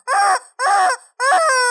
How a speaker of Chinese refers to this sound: 啊，所以我们自从我们家有了尖叫机，我明天就这样叫你起床喽，